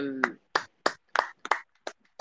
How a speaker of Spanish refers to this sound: Y nada, desde aquí, desde Puerto Rico, le aplaudimos a Gref